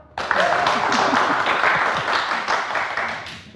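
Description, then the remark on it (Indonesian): An audience breaks into applause, a dense wash of many hands clapping that starts abruptly, holds steady for a few seconds, then gradually thins out, with faint voices mixed underneath. “Tepuk tangan dong.”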